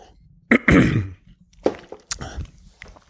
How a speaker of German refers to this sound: gut, steigen wir ein noch einmal kurz husten und äh, einen Schluck trinken.